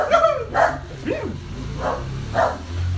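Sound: dog barking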